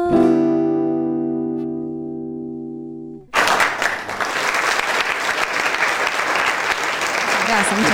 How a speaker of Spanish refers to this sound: Muy bien, el auditorio acá del Estudio Mayor, el Estudio Miguel Ángel Bengoa, de pie para aplaudir. La verdad que no pensé que, iba a venir tanta gente a escucharnos acá en vivo.